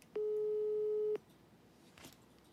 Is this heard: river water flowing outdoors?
no